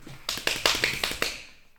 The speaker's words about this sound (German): Atmen wir zusammen, hau auf deine Schenkel.